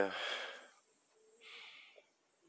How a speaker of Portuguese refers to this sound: E minha respiração, gente, tá pesada esses dias.